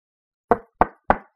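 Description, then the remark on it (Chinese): Three firm knocks on a door, evenly spaced about a third of a second apart, each a sharp thud with a short decay, followed by silence. “有人敲门，我们愣在当场。”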